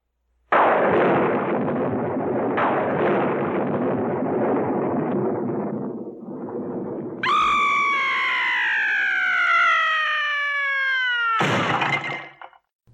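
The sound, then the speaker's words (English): A loud thunder clap bursts in suddenly and rumbles for several seconds, then a long, high, wavering scream rises over it before a final sharp crash cuts everything off. No one speaks. “The delay between the sound of thunder and the light from the flash is due to the distance between you and the bolt.”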